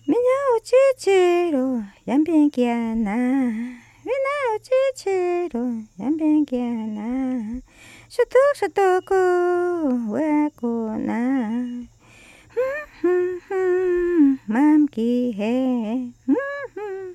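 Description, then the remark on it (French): A woman's voice sings an ancestral Wampis anen chant, short melodic phrases with sliding, wavering pitch and brief pauses between them, over a faint steady buzz underneath. “On appelle ça un anen, un chant ancestral de la communauté Wampis.”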